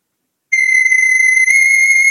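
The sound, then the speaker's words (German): A shrill, high-pitched alarm tone named "Sci-Fi", played back on a device, starts abruptly after a brief silence and holds steady and loud, a piercing synthetic whine with bright overtones and no talking. “Ja, Sci-Fi heißt der Ton.”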